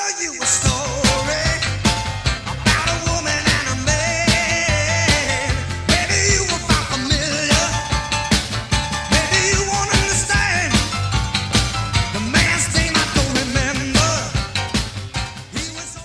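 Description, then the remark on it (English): A loud, driving rock and roll piano song plays continuously with a steady, pounding beat and a full band filling the mix from start to finish. “So if you don't hear … or … on this one, you are missing the boat, my friend.”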